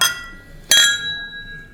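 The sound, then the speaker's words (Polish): Two bright clinks of wine glasses in a first toast, one at the start and a second at about 0.7 seconds, each leaving a clear high ringing tone that slowly fades. No one speaks. “E, bardzo serdecznie Was pozdrawiamy i ten pierwszy toast właśnie za Was wypijemy, za Wasze zdrowie.”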